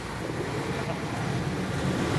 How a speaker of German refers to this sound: An der Straße, die wir langgehen, herrscht ganz schön viel Verkehr.